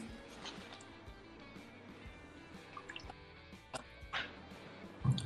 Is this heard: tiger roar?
no